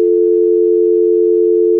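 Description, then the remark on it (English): A steady, unbroken telephone dial tone hums loudly and evenly for the whole two seconds, with no voices or other sounds over it. “Otherwise, you won't hear a dial tone.”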